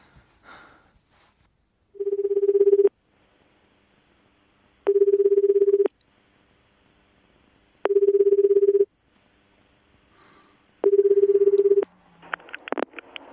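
A phone's ringback tone sounds four times on a call to the caller's mother, each about a second long with steady gaps between, clear, preceded by faint handling noise and followed by brief clicks and dialing beeps.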